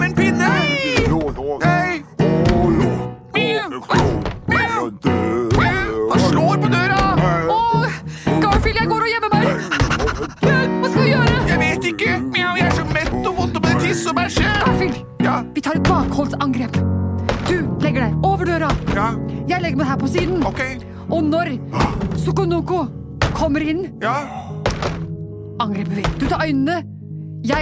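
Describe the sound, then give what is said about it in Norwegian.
A man bangs repeatedly and heavily on a door, loud, with irregular thuds and scraping throughout, mixed with excited vocal sounds and voices. “Han slår i døra!”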